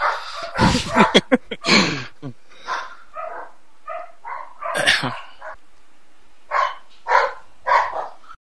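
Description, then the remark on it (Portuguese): A dog barks repeatedly, a run of loud, sharp barks at the start, then scattered yips and whiny barks with short pauses between them. “É, eu ia falar que eu não odeio Onicon, mas o cachorro acho que ficou puto por isso.”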